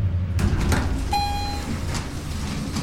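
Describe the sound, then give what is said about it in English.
An elevator in a swanky hotel in Mexico City hums with a steady low mechanical rumble as it ascends, a single bright chime rings out midway, and the doors slide with a rushing whoosh. “The morning's recriminations still linger as the elevator makes its painful progress skyward.”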